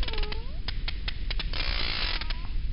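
Vocalizations of a sperm whale, a whale of about fifteen metres, as it attacks a giant squid: sharp, irregular clicks pop out of a steady underwater hiss, joined by a couple of thin, whining tonal sweeps near the beginning and end.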